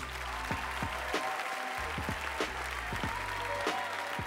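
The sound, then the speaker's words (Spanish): Audience applause, a final round for the performers at a show in La Plata: a steady wash of many hands clapping, fairly loud and continuous, with a few sharper individual claps standing out over a low hum underneath. “Ahora sí, vamos a pedir a los chicos que se acerquen y vamos darle el último fuerte aplauso para ellos, muchachos.”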